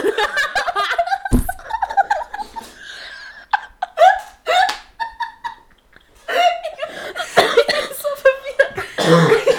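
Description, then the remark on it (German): A person laughs in breathy bursts, then breaks into a few harsh coughs, with more laughter and chuckling continuing afterward. “ähm, lachen, das muss ich husten.”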